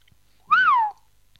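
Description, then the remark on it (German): A single short whistle blown into a microphone, lasting about half a second, rising briefly in pitch and then sliding downward. It is loud and stands alone with no talking. “Ich weiß nicht, ob man in Mikrofone pfeifen sollte.”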